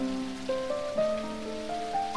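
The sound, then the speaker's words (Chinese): Steady patter of raindrops falling on an umbrella, a continuous even hiss of drops, with a gentle melodic tune of sustained notes stepping upward played over it. “听一听雨滴落到雨伞上的声音，像不像是谁在一个劲儿的敲着小鼓？”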